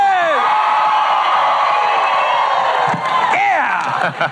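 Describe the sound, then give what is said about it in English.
A large crowd cheers loudly and continuously, trying to be louder than Gary Keller's crowd, a dense roar of voices with rising whoops and yells breaking through, sustained at full volume for the whole stretch. “He wanted to make sure that we were louder than Gary's crowd.”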